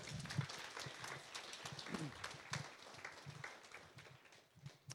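An audience applauds with steady, dense clapping that fills the whole five seconds at a moderate level, with a few faint voices mixed in beneath the clapping.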